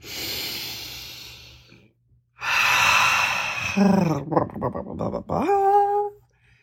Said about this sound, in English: Take a deep breath.